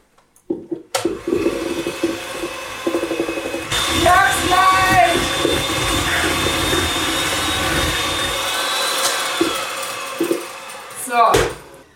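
An electric kitchen mixer whirs steadily for about ten seconds while chocolate cake is being made, a loud motor drone with a high whine that shifts briefly in pitch before the machine stops abruptly.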